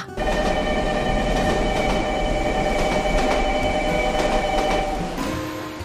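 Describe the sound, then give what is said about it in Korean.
A subway train rumbles steadily at Gangnam Station in Seoul late at night, with sustained metallic tones and a low continuous roar throughout, fading slightly toward the end; no one speaks. “결국 레깅스 하나를 구매했고 저는 지하철을 타러 갔죠.”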